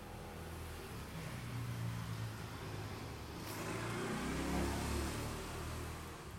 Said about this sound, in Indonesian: jadi itu salah satu gangguan yang bakal ada terus suara motor karena aku depan jalan